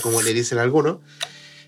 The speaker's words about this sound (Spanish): eh, acaba de abrir la botella con los dientes. Qué hijo de puta. Soy un maestro.